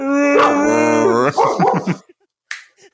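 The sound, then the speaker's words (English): A dog lets out a long, drawn-out whimpering whine, then breaks into a quick run of short, yelping barks, fairly loud, followed by a brief sharp sound after a pause. “Sorry, everyone. I don't have anyone to watch my dog anymore.”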